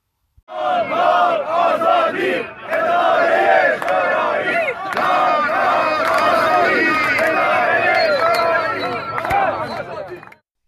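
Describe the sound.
A large crowd of striking workers of the Haft Tappeh sugarcane agro-industrial company chants together in protest, loud and sustained, with voices rising in rhythmic shouted slogans for about ten seconds before cutting off.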